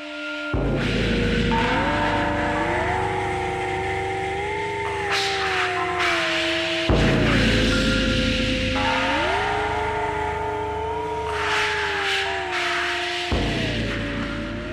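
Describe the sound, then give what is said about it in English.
A wavering theremin glides through a melody resembling "We Wish You a Merry Christmas", the hidden track at the end of an eight-minute track. Its pitch slides smoothly between notes over a constant bed of static hiss. The short phrase plays twice, fairly loud, with no voices. “It is essentially a theremin playing something resembling "We Wish You a Merry Christmas."”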